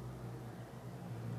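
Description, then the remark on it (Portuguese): A motorcycle engine drones as it passes by outside a house, a low steady hum that stays fairly even and muted, with no voices over it. “Ai, desculpa o barulho de moto e qualquer coisa que vai passar aqui.”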